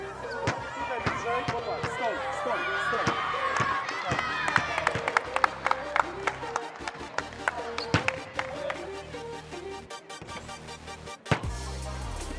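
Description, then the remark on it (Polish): A basketball bouncing repeatedly in quick, irregular thuds during a shooting game at a Basket Hanas training session in Zgorzelec, one player shooting while wearing gloves, mixed with excited voices, claps and chatter throughout, ending in a burst of louder noise. “Nie da się w tym rzucać, cholera jasna.”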